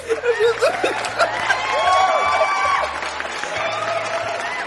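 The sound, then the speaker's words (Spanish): A crowd claps steadily for several seconds, a dense wash of applause mixed with scattered laughter and cheering voices, fairly loud throughout. “¡Aplausos!”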